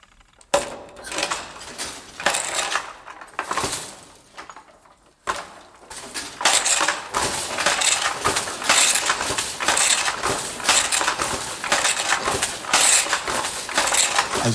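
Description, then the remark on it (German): A large wooden punch-card-controlled loom, in use until 1987, worked by a man seated on a bench, clatters and knocks in a busy, repetitive rhythm, with sharp clunks, rattles and sliding thuds, a short pause, then continuous loud mechanical clacking; no one speaks. “Er sitzt auf einer Art Bank und demonstriert eindrucksvoll, wie das Weben funktioniert.”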